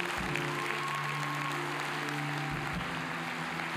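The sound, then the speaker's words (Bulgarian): A church audience applauds as an offering of faith to God, in a steady, dense wash of clapping that holds at an even level for several seconds, with a low sustained hum of tones running underneath. “Дай му едно мощно дарение на ръкопляскане на вяра.”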